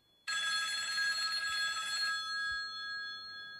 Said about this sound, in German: Oh, hoppla, das Telefon klingelt. Ja, ich höre es auch.